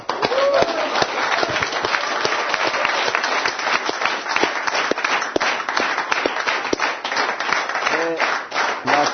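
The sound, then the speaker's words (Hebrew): Sustained applause from a TV program audience for a group from Ashdod, dense overlapping claps filling the whole stretch at a steady, fairly loud level, with occasional faint voices mixed into the crowd noise. “אז, אה, אז מגיע להם מחיאות כפיים.”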